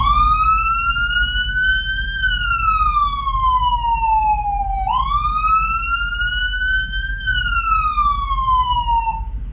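A loud ambulance siren in its slow wail emergency tone, the warning tone used on open roads and boulevards, sweeping smoothly up and down through two long cycles over a steady low rumble, with no talking.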